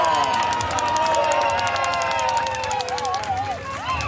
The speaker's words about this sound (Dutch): e adesso l'applauso di Venosa e tutta per la maglia rosa perché è arrivato Renko e Venepulla.